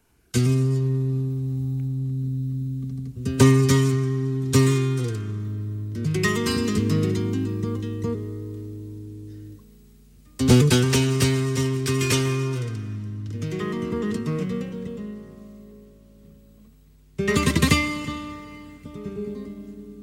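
Solo flamenco guitar playing tarantas by Málaga guitarist Paco Javier Jimeno, winner of the Bienal young performers' contest: bursts of sharply strummed chords that ring out and decay into sustained, melodic single notes, clear with no voices.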